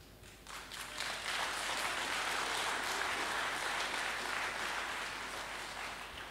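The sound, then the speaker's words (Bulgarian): A crowd applauds steadily, a dense wash of many hands clapping that swells quickly and holds at a fairly loud, even level before easing slightly toward the end. No one speaks over it. “Знам, че има някои религиозни фарисеи, които не пляскат достатъчно силно, седнали до теб.”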